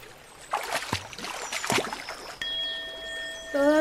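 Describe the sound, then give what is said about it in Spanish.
A person wades into water during a ritual, with several irregular splashes and sloshes over about two seconds, followed by a steady tonal ringing in the background. “Entra al agua, hermano.”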